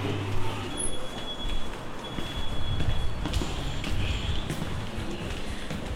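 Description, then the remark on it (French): Elevator doors slide open at the third floor, the level of the bookshop and café, over a steady low mechanical hum, followed by a few sharp clicks and soft thumps amid a constant rushing background. “Ouverture des portes. Doors opening.”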